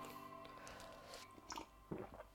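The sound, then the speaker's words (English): A loud, wet slurp of tea, heard as a couple of noisy sucking bursts over a quiet background with no talking. “Sorry, and slurp some tea. That was a really big slurp.”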